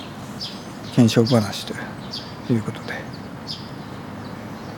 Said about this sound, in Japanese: 鳥の声を聞きながらフェードアウトしていこう。ね。